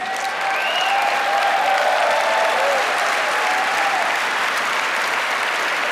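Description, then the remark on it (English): A crowd applauds steadily for about six seconds, dense overlapping clapping at an even, loud level, with faint whistle-like cheers rising above it partway through. “Clap your hands, all you nations.”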